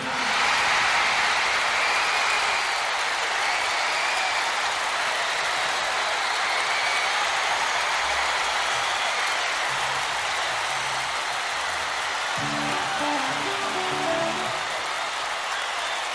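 Sustained, dense applause from a large audience in a hall after a singer is announced on stage, filling the whole stretch at steady loudness, a continuous hiss of many hands clapping with no talking heard above it.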